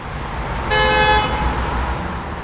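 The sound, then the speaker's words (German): A single car horn honks for about half a second over a steady rumble of street traffic, with engine noise continuing in the background after the toot. “Straßenlärm und Autoabgase ließen sich natürlich reduzieren, sagt die Psychologin und Verkehrsplanerin Dr.”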